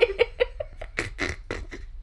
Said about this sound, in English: Oh, this is a fun noise I made, huh? I don't usually snort, but I did then. Was that a snort, or is it more like know. a choke? I have a sinus infection, so I'm just kind of wheezing at all times.